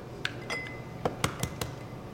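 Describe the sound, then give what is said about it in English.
Two eggs are cracked and dropped into a glass blender jar: about six sharp clinks and taps against glass, one briefly ringing, spaced irregularly, with no talking. “So I like to start with just two eggs in a blender.”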